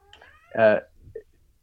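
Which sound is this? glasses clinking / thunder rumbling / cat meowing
cat meowing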